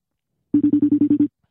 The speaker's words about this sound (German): So, jetzt, ist, jetzt bin ich verbunden, jetzt rufe ich ihn an. Ich hoffe, er hebt ab. Hat ah ja, es läutet schon. Ich höre sogar.